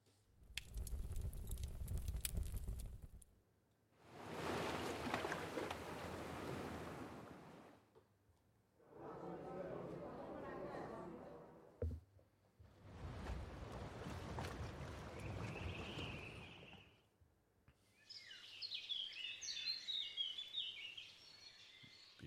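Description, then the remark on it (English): A run of short ambient scenes separated by brief gaps: a low rumbling crackle of a pub fire, broad washing surf on a beach, water sloshing against a hull while sailing, more rushing waves, then bright chirping birdsong in a forest. “Fire pub, beach, sailing, forest.”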